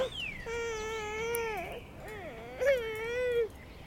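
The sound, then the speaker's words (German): A young boy, just lifted from his pram by his mother, cries after losing his twig, in long, high-pitched wails, the voice bending and breaking between sustained notes, with a brief louder shriek near the end. No one else speaks. “Geschrei.”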